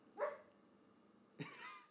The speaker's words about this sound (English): that was my dog.